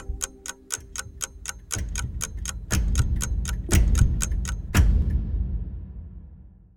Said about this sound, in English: The last click as the clock hand snapped to attention drew me out of my daze, like a snap as the hour hand turned to 1 o'clock.